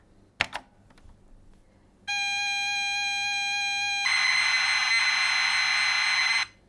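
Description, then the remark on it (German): A couple of sharp key clicks, then a loud, steady electronic tone that gives way to a harsh, buzzing screech from the mini speaker of a Romanian-built Chip 03 computer loading a game in BASIC, stopping abruptly after several seconds. No one speaks. “Der Lärm des Mini-Lautsprechers ist durch keinen Knopf zu zähmen.”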